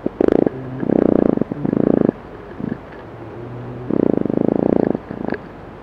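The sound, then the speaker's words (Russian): A fruit fly's courtship song: bursts of low, rapid buzzing pulses, each lasting about half a second to a second, separated by brief gaps and faint intermittent hums, with no talking. “И это были звуки, которые издает влюбленное животное, у которого мозг размером с маковое зернышко. И это была плодовая мушка.”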